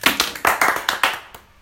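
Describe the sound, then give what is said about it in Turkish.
A short burst of applause from a few people, requested by a first-time moderator of a football discussion, quick uneven claps that are bright and fairly loud, tapering off after about a second with no one speaking. “Ee, ha, ben evet moderatör olarak ilk moderatörlük deneyimi bir alkış istiyorum.”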